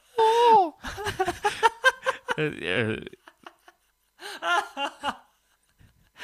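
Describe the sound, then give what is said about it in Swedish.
A voice imitates cannibals in a film moaning while eating, making a series of drawn-out, pitched moans and breathy gasps in uneven bursts with short pauses between them. “och kannibalerna ja, stönade hela tiden.”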